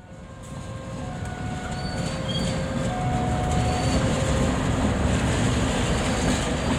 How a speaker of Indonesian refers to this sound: Jadi kalau mekanismenya loko tuh masuk. Nah nanti dia loko kan berhenti di atas turntable tuh.